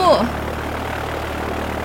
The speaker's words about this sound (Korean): 내가 엔진 소리 때문에 안 들린다며 손을 내젓자